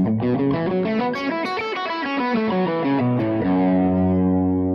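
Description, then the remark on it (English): A distorted electric guitar plays a quick run of single notes stepping through a scale, evenly paced and loud, ending on a sustained held note with no talking. “So if I moved it down three frets, understand my first finger would be at the two, second fret, and my pinky would be at the five.”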